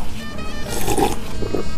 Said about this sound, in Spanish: Entonces vámonos porque aquí déjeme le doy un sorbo.